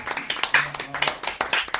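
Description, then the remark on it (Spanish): A crowd applauds the sound technician, many hands clapping in a dense, steady patter of sharp claps, fairly loud and continuous with slight rises in intensity. “Oye, un aplauso para el técnico de sonido que tenemos”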